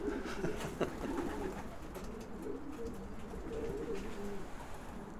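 pigeons cooing

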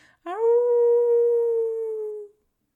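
howling

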